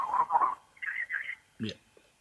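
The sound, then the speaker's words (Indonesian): Muffled, band-limited voice over a telephone line, garbled and hard to make out, in a few short bursts with brief gaps between them. “Halo, suaranya kurang jelas.”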